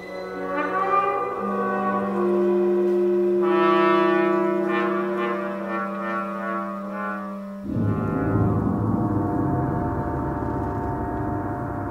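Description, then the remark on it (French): A solo trombone imitates laughter in Varèse's Arcana: a loud, low brassy tone is held, then broken into rapid pulsing bursts, before a dense, rough, noisy texture takes over for the final seconds. “mais Il y a le trombone d'Arcana, donc de Varese, ou. C'est en solo le, tromboniste qui fait c'est « A, A, A,”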